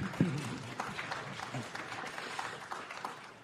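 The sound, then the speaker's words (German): An audience claps steadily for a few seconds, a dense, even patter of many hands at moderate volume, with a brief voice sound at the very start. “Okay, das heißt, Sie sagen eigentlich, ne, der Applaus sei gegönnt.”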